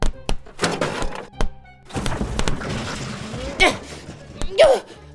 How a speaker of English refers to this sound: Hey, Marty, could I move these car tires? Oh, yeah, sure. Put them over there by the lawnmower parts.